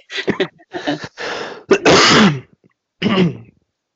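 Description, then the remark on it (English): A burst of loud coughing and throat clearing: several short harsh hacks, a longer rasping clear in the middle, then one final cough after a brief pause. “You need to cough.”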